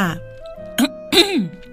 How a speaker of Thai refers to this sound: แฮร์รี่รู้สึกว่าตัวเองต้องช่วยอะไรสักอย่าง จึงกระแอมขึ้นมาอย่างอายๆว่า